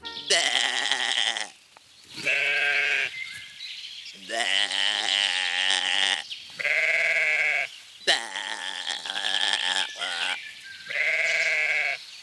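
A sheep bleats loudly in a recording from 1910, made to bleat by a shepherd: about six drawn-out calls in a steady back-and-forth rhythm, some harsh and raspy, others clearer and more tonal, with brief pauses between.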